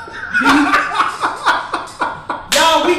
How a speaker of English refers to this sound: Y'all, hey, that little ass clap you heard over here was my homeboy